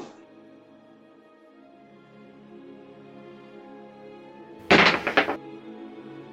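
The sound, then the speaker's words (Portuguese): A loud wooden thud of a head slammed full force into a door, cracking in two or three rapid impacts near the end as the door cracks but does not open, over a steady droning musical background. “Tu, vocês escutam o estralo da porta, mas a bicha ainda não abriu, mano.”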